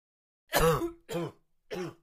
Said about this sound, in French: Un tousseur continuel irrite mon poumon et mon gosier.